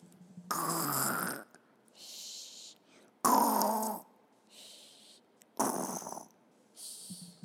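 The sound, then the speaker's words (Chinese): A sleeping piglet on a construction site snores in a steady rhythm, three loud, rough, rasping inhales each followed by a softer, breathy, hissing exhale, with short quiet gaps between. “大家都在做自己的事情，可是有一只小猪正在发出一种奇怪的声音。”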